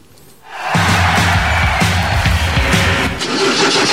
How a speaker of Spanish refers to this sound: ¿Y arranca o no arranca? Siempre arranca con bujía Gescher para motores diésel.